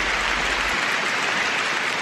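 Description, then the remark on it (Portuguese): A burst of applause, many hands clapping in a dense, steady crackle that holds at an even loudness for about two seconds, with no voices heard. “Palmas!”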